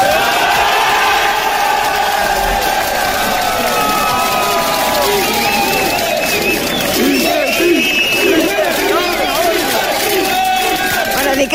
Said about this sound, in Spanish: sí, di que sí, le gritaban los compañeros de este, de este chico